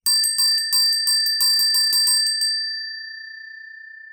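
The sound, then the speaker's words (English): A small bell is rung rapidly, about a dozen bright, ringing strikes over two and a half seconds, then a sustained metallic tone lingers and slowly fades. Clear, with no talking. “Okay, shall I ring it?”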